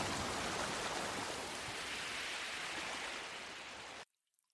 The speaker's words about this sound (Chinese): 微风轻轻地吹过，远处的流水声，让我们进入。忘我的仙境，